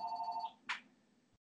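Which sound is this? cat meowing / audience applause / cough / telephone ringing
telephone ringing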